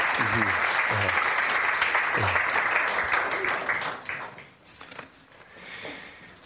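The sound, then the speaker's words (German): Loud, sustained applause from a church audience for a children's service group, a dense crackle of many hands clapping with faint voices underneath, gradually thinning and fading out toward the end. “Gebt mal einen großen Applaus.”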